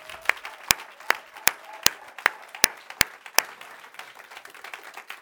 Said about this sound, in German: Trotzdem wollen wir diese Leute noch einmal bitte mit einem kraftvollen Applaus begrüßen. Danke. So ist es gut. Super.